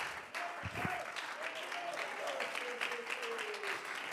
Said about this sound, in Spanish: Alguien que aplauda la presencia de Dios y este maravilloso tesoro.